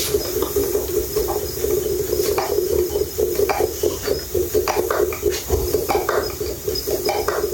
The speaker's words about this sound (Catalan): Això seria filar la llana? Em costa sentir el soroll, però jo m'imagino... Sí, sí, ho és, ho és. Això s'està movent ah, ja... Ah, això és el pentinador, deu ser, doncs, no? El soroll que estic escoltant ara. Estem filant, estem filant.